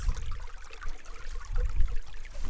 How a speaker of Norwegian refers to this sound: Og jeg kommer altså til en liten som man kaller det, en bekk. Hvordan skal jeg klare å krysse denne bekken? Vannet sildrer.